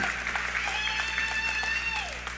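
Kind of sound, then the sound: crowd, audience applauding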